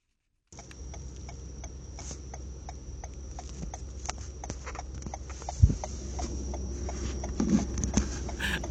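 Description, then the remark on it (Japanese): A car's turn signal ticks in a steady, evenly spaced rhythm over the low rumble of a moving vehicle, with no one speaking and a single soft thump partway through. “車のウインカーの音、えー、車用車走行中の音ですながら運転で録音してませんのでご安心くださいと”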